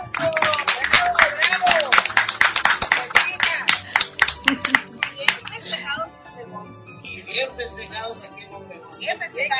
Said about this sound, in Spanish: Un aplauso por los primeros 11 años. Eso es.